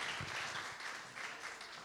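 A crowd applauds with steady, dense clapping that holds an even, moderate loudness for the full two seconds. No voices rise above the clapping.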